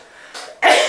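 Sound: sneeze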